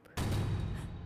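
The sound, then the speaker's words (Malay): The door of a small room containing a pool slams shut with a single sudden, heavy thud. A deep booming rumble lingers for about a second afterward, and no voices can be heard. “Tiba-tiba pintu bilik tertutup.”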